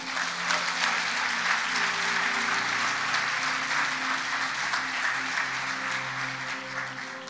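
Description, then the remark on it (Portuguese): An audience applauds Jesus steadily for about seven seconds, a dense, even wash of clapping at constant loudness, with low sustained musical tones humming faintly underneath. “Aplaude Jesus por isso, irmão.”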